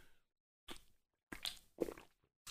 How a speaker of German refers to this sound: Ihr Lieben, ich mache mir einfach mal ein schönes Getränk jetzt auf um den Podcast angemessen mit euch zu zelebrieren. Prost, ich trinke auf euch.